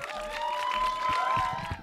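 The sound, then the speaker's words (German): An audience breaks into steady applause while a student contestant in a competition comes onto the stage, a dense wash of many hands clapping at once, with cheering and a sustained whistle running through the middle. “Einen Applaus, bis die Tamar Tamara auf der Bühne ist.”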